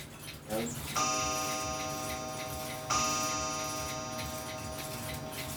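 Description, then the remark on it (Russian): An antique mechanical clock in a clock restoration workshop ticks steadily, overlaid by two ringing strikes of its chime, each sounding bright and metallic before slowly fading. “В основном наши часы, нашей мастерской реставрации времени приходят 17, 18, 19 век – это переход по наследству,”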